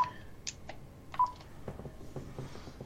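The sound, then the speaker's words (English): A short electronic telephone tone beeps once at a steady pitch amid soft clicks and low background rustle, moderately loud, with no one talking. “I just lost my train of thought, but they are just doing it's some things that the that random phone call through for a loop, man.”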